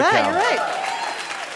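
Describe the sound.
An audience breaks into steady, dense applause that holds at an even level, with a voice calling out over the first half-second before the clapping carries on alone.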